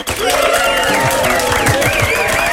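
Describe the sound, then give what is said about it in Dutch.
Studio audience applause, a dense, loud, steady wash of clapping with high whoops and whistles gliding over it, holding for about two and a half seconds. “mag ik jou een oprecht studio-applaus serveren?”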